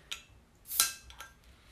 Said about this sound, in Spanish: Ahora escuchas cómo estoy fallando en abrir esta botella. Sí, esta botella es medio extraña. O oh, el abridor es una mierda.